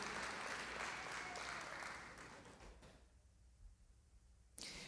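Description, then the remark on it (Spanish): An audience applauds for the Lord in a dense, steady wash of clapping that tapers off over a few seconds into quiet, with a short burst of sound returning at the very end. “Dado fuerte al Señor ahí, porque el Señor nos ha bendecido con una palabra espectacular.”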